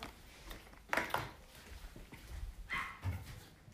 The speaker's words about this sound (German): Oh, wie süß. Ein Hund hat halt gerade gebellt.